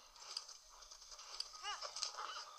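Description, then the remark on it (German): Video game horse hooves, of a horse the player calls Ferdinand, thud in a loose rhythm as it gallops over a busy background, joined briefly by a short rising and falling vocal-like call partway through. “Ich nenne mein Pferd jetzt einfach trotzdem Ferdinand.”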